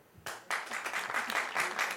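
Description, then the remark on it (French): A crowd breaks into applause, starting with a few claps and swelling quickly into steady, dense clapping from many people. “Qui est-ce qui a fait pareil par applaudissement”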